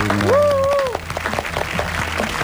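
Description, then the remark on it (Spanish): A rising, wavering whistle-like tone with a low steady hum opens, then loud, dense applause of many clapping hands fills the rest of the short clip, applause marking the program's first month on air. “Hay algún eh, fuerte aplauso para el mes de programa, qué lindo.”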